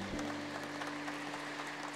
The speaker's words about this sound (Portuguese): Bem-vindos. Uma salva de palmas, é um prazer imenso.